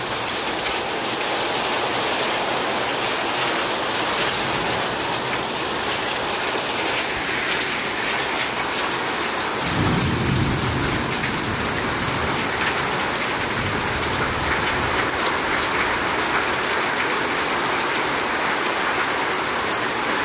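Heavy rain pours down steadily for the whole stretch, a dense, loud hiss of drops drumming on surfaces, with a brief deeper rumble partway through and no voices.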